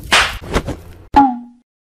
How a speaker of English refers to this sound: Uh, what the? That smack was loud. Super loud. I didn't even know what happened. Oryo had smacked Snake so hard, it shocked me.